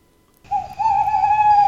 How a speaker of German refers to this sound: Hört mal genau hin. Hört ihr auch, wie ich das Käuzchen rufen?